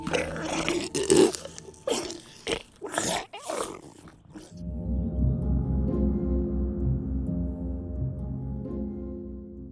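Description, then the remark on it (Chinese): The big grey wolf, dressed in grandmother's clothes, jumps from the bed and swallows Little Red Riding Hood whole: a burst of loud, rough snarling bites for several seconds, then a steady, low rumbling growl that carries on to the end. “穿着外婆衣服的大灰狼从床上跳起来。一口把小红帽整个吞进了肚子”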